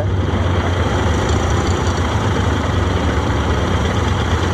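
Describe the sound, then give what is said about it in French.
A quad bike engine runs steadily, a loud continuous idling rumble with a rough low throb and no voices over it. “T'es sur le quad, bah faut y aller.”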